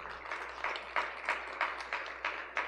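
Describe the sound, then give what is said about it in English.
A quiet audience applauds in a steady rhythm, the claps swelling in regular pulses roughly three times a second. No one speaks over it. “You guys can give them a round of applause.”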